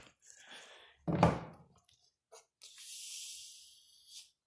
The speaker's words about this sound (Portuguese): Eu estou no meu consultório bebendo uma água com gás, que inclusive eu vou abrir agora para fazer o barulhinho de água com gás.